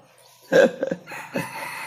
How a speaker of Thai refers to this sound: ไก่นี่มันเห็นด้วยกับผมมากเลยขันเอาขันเอาเนี่ยตะกี้ไม่ขันนะครับ